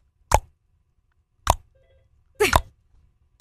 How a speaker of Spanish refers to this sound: Si usted tiene una gotera y suena así, ¿eh?